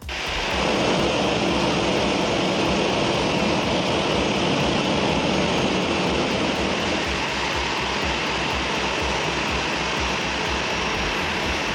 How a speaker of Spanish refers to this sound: Este es el sonido de su avión al llegar a la isla asiática hace unos 10 minutos más o menos, donde le han recibido una comitiva de políticos.